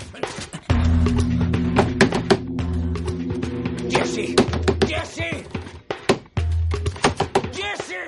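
Loud, irregular knocking and banging on the back door of Jesse's house, sharp impacts coming in quick bursts and scattered hits, with a low steady droning tone underneath for much of the time.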